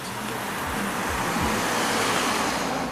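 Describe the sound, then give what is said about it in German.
On a street where two cars drive one behind the other, one car suddenly brakes abruptly and turns off, its engine rumble dropping and shifting over a steady, loud wash of road noise, with no voices. “Auf der Straße fahren zwei Autos hintereinander, als dann plötzlich das eine abrupt abbremst und abbiegt.”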